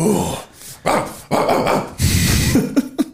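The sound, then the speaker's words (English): A dog barks and growls in a run of loud, rough bursts, ending with three quick sharp yips in succession. No one speaks. “that's a dog bro.”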